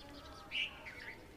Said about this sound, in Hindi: चिड़ियों मुर्गों की आवाज़ सुनकर मेरी नींद अचानक से खुली